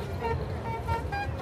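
Several vuvuzela horns blare in overlapping sustained toots over a steady rumble of street traffic, moderately loud, with faint voices mixed in.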